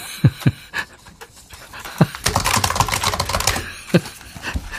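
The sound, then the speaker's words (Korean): Computer keyboard typing: a few separate key taps, then a quick burst of rapid clattering keystrokes, followed by a single final tap, with no voices. “아, 키보드 소리군요.”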